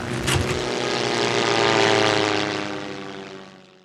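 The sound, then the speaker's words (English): A propeller airplane engine drones steadily with a buzzing, harmonic hum, swelling louder as if passing by, then fading slightly at the end. No voices are present. “Now land this plane.”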